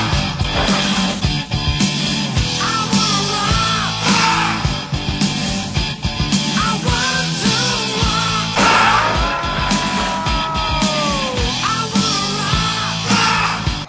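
Loud, driving rock music fills the whole stretch, with dense distorted guitars, pounding drums and a strained, shouted vocal line soaring over the band.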